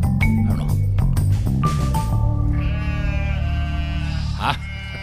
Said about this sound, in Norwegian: Endelig fått brukt den der sauejinglen min.